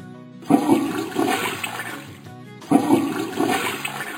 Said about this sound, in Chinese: 原来忙活了半天，竟是坐便器下水的声音。